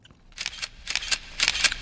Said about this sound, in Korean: 아, 카메라 셔터음이에요.